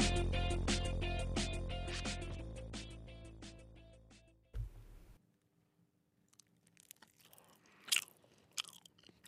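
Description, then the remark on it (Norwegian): A short musical sting fades out, then someone chews and eats morkake, a cake, while on air during a Radio Nova broadcast, with sporadic soft crunches and wet mouth clicks and no talking. “Men hva, hva er det du spiser, forresten?”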